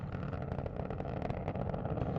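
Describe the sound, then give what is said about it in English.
The engine roar of the Space Shuttle Atlantis launching in 2011 on the last shuttle mission, bound for the International Space Station, fills the whole clip: a continuous, heavy rumble with crackling, rippling texture throughout, loud and steady with no voices. “On this day in 2011, the Space Shuttle Atlantis launched on the last mission of the shuttle program”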